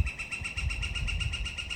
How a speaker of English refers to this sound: There are 239 species of woodpeckers. This one is the northern flicker. They're found in North and Central America, even Cuba Every day, my local flicker does his thing, banging his head against the tree.